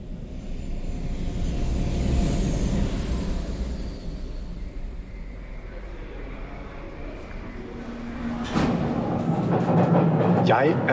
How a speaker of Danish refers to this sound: netop boardet et tog i Londons undergrund på vej ud for at mødes med Anton Chowdhury.